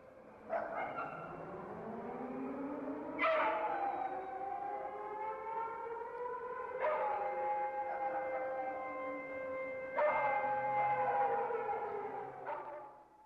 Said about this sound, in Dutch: Zaterdag 12 uur, alarmoefening.